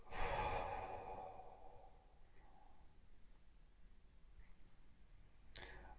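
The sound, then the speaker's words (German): A single slow, breathy exhale during a guided breathing exercise, fairly soft, fading out over a second or so and followed by quiet room tone with a faint brief click near the end. “Jetzt atmet einmal ein und aus.”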